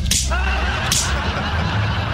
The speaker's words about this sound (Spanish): A ver, voy a dar las cachetadas y salgo corriendo.